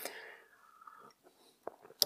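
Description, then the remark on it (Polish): A quiet slurping sip of hot tea lasting about a second, followed by a few soft mouth clicks and a small knock, with no talking. “Łyk herbaty bierzemy dalej.”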